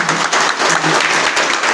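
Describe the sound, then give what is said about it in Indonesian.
A crowd applauds for God as a newcomer is welcomed, with dense, steady clapping that stays loud and even throughout the short burst, without any voices rising above it. “Beri tepukan bagi Tuhan.”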